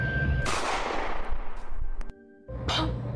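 A loud gunshot from a gun held to a person's head cracks out and rings off in a long fading tail, followed a couple of seconds later by a second, shorter blast, with a steady low hum underneath and no voices.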